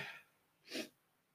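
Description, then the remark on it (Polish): One short, sharp sneeze bursts out after a faint breathy intake, followed by quiet. Nobody speaks. “A kichamy.”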